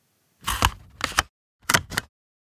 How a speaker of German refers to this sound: Viele haben es vielleicht schon erraten. Es ist ein Locher.